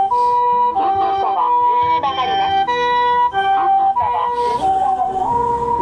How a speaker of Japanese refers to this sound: ちょっとね、救急車が来たんで、あの、あれですけれど